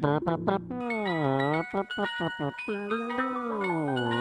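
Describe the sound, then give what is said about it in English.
A single voice hums a short, wobbly ice cream truck jingle, imitating the tune slightly off-key with sliding, sustained notes and brief breaks between phrases. “Okay, yeah, yeah, and, and I always like it when the uh, when the music coming out of the loudspeaker is like off. It's like just by a hair of a key.”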